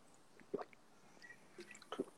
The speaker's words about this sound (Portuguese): Então, poxa, naturalizar um pouco mais aí a água. Até beber um pouco. É, momento água